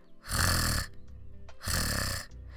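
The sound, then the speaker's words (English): A voice makes two loud guttural throat trills, each a rasping, rattling burst under a second long, separated by a brief pause: the Portuguese R sound, as in "carro", made with a vibration in the throat, like a rolled uvular R. “I know that many of you might struggle with this this Portuguese R sound So, the majority of the Portuguese people will do it with the throat. So, a vibration there on your throat, something like.”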